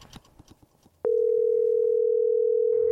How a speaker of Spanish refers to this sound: La llamas al celular para decirle te amo.